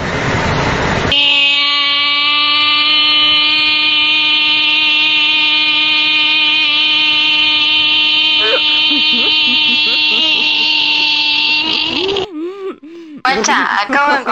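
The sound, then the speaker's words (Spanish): A voice imitates cicada buzzing in a Córdoba style, with one long, loud, steady nasal drone held for about eleven seconds, then breaks off into a few short vocal sounds. “Voy a hacer como las chicharras, pero en versión cordobés”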